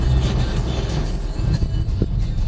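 Steady, deep rumble of road noise inside a moving car driving back from the vet, a constant droning hum with faint rattles and bumps, fairly loud, with no one speaking.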